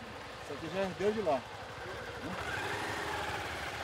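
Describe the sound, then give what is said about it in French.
A motorcycle engine runs steadily throughout with a low, pulsing drone during a half-hour ride into a forest, while a voice speaks briefly over it near the start. “Au cœur de la forêt, après une demi-heure de moto”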